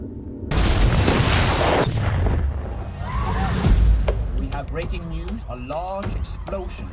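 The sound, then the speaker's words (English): A bomb explosion in the center of the city of Oslo bursts out suddenly with a loud, deep boom and a long rumbling roar, then a second heavy thud, followed by agitated voices calling out. “You heard about the bomb in the city?”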